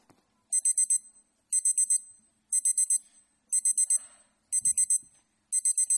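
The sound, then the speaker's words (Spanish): An electronic alarm clock rings with shrill, rapid beeps in clusters of four, repeating roughly every second, loud, with a faint low thump partway through and no talking. “O problema é cando soa o despertador e hai que erguerse para ir traballar.”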